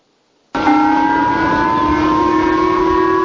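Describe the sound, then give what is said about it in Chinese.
A national-level civil defense alert siren in Hokkaido, Japan, sounding early in the morning after North Korea fired a possible ICBM-class ballistic missile, telling residents to take shelter. It starts abruptly and holds a loud, steady wail of layered tones over a rushing noise bed, its lower tone drifting slightly upward. No one speaks. “日本北海道附近海域一早警报声大作，要求居民赶紧避难。”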